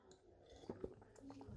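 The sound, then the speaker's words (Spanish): A quiet, close-up sip from a drink, with two soft wet mouth sounds in quick succession and a faint swallow, set against low background hiss. “Sorbito.”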